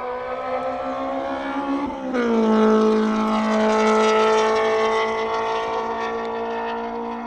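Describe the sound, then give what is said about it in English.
A loud Honda S2000 race car engine screams at high revs on a race track. It dips briefly as if shifting gear, then climbs and holds a sustained, buzzing whine as the car runs past, with no talking. “So the first S2000 is going to come around.”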